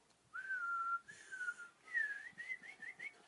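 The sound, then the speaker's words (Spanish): A series of high-pitched whistled tones, a long sustained note followed by shorter gliding whistles that rise and fall, clear and fairly loud with no talking. “Importantísimo el tono y la entonación. Lo que hablamos por la boca. Los tonos agudos”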